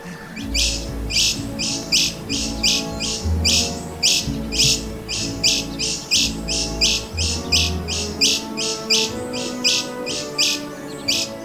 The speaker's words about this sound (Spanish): ahí escuchamos a un colibrí que se sale de los estándares de lo que pensamos que es un colibrí. Se llama ermitaño, eh, bueno, eh, tiene varios nombres, pero se llama colibrí ermitaño mesoamericano